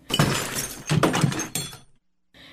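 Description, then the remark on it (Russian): An egg drops and cracks apart with a few sharp, crunching, shattering impacts in quick succession, fairly loud, then a brief silence and a faint hiss of background noise. “И яйцо просто, оно разбилось.”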